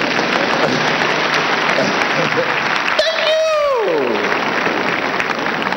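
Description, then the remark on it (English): A church audience applauds itself steadily, a dense wash of clapping that runs throughout, while a brief rising-then-falling vocal whoop or cheer cuts through partway along. “Clap for yourself.”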